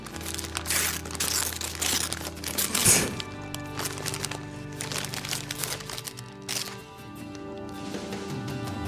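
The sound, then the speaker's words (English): Gift wrapping paper crinkles and tears as a wrapped present is opened, in a busy run of rustling bursts, with one sharper rip partway through, over a faint steady hum. “he's given her this present. It's all wrapped up and everything, so she's playing along.”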